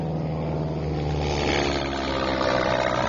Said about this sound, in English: One the of the, uh, plane, uh, the, the plane, plane, the plane just flew right up our right over our building. Oh my gosh! wow. Wow! Listen to that bad boy.